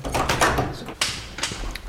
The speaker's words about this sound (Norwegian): I enden av en gang ligger det en dobbeltdør. Han viser meg inn.